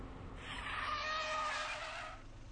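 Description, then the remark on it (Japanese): A car's tires squeal in a sustained skid for about two seconds, a harsh, shrill screech that holds steady and then cuts off as the vehicle stops to let its occupants get out, with a low engine rumble underneath. “よしじゃあここで車降りて上流島まで向かおう”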